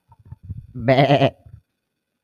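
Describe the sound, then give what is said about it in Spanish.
A man imitates a sheep's bleat with one loud, quavering baa lasting about half a second, framed by faint low murmurs before and after. “¿Os pensáis con los rebaños? ¿Qué es eso?”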